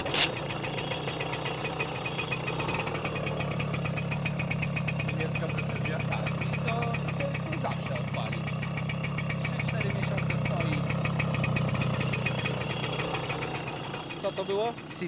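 A German-made Simson moped engine idles steadily, a continuous rapid throbbing putter with a rattly mechanical edge that holds an even level throughout.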